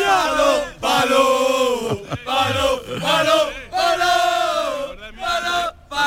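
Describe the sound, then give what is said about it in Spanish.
A large crowd of football supporters at a match chants loudly in unison, sustained sung phrases broken by short pauses, with cheering voices filling the space. “aquí tenemos a la gente, a la afición, que la verdad que está ilusionada con el partido de hoy”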